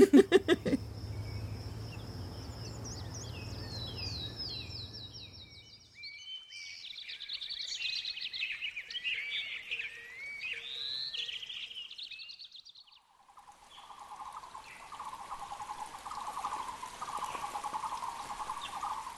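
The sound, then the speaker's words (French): Background birdsong ambience: birds chirp and trill in quick, high-pitched bursts over a steady low hum, later giving way to a continuous buzzing drone like insects, with no one speaking. “Est-ce que vous avez remarqué qu'il y a quasiment toujours des oiseaux en fond des épisodes de French Expats Alors, bah, moi, c'est c'est pas fait exprès.”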